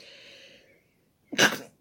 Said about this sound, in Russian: вот не зря я чихнула, да, так оно и есть.